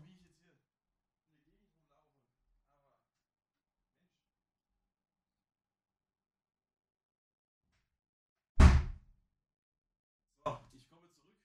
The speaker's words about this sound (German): Ich muss kurz aufstehen, die Tür zu machen gehen, das ist viel zu krank. Ich bin gleich zurück.